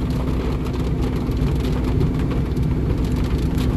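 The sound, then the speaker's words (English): Steady rain with large, fat raindrops drums on a car roof and windows, a dense, continuous patter with a low rumbling undertone, fairly loud, with no one speaking; the rain has been going on for a while and the road is flooding. “it seems this rain's been going on for a while.”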